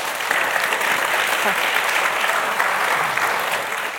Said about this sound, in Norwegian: Klapp for han.